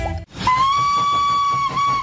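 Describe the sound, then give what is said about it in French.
The whistle of the Train à vapeur des Cévennes, a steam train running between Anduze and Saint-Jean-du-Gard in the Cévennes, sounds one long, steady, high-pitched blast with bright harmonics, holding for well over a second over a rhythmic chuffing and hiss, after a brief burst of other sound. “Le train à vapeur des Cévennes ouvre ses gares à partir du samedi 8 avril pour un voyage dans le temps au cœur des Cévennes entre Anduze et Saint-Jean-du-Gard.”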